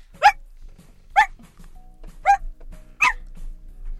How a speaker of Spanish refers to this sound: Nadie supo cómo interpretar los cuatro ladridos que lanzó Hércules, que seguro significaban que quería comer algo que no fueran croquetas para perro.